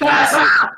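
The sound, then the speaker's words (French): A single loud, drawn-out sneeze with a strained, howling vocal edge, almost like a yell, lasting under a second with a sharp burst of breathy hiss midway. “À tes souhaits, mon marquis.”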